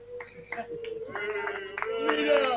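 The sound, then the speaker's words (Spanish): A group of Racing friends gathered for a programme bursts into applause that starts scattered and thickens into a steady, dense patter of many hands. A voice or steady tone runs underneath throughout. “Vamos a aplaudir también a Ricardo Zanelli que no vino, anda a cagar.”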